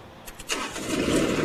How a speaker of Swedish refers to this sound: Ska du starta din traktor nu så att vi får, din gräsklippartraktor, så att vi får höra hur den låter.